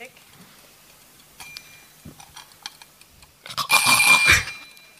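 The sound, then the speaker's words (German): An alarm clock named Signal Girl rings in a loud, bright metallic burst lasting about a second, preceded by faint, scattered ticking and clicks. “Ähm, ich ich spiele mal kurz, wie der sich anhört, das ist nämlich großartig.”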